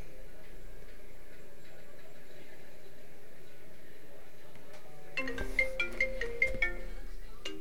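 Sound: phone ringtone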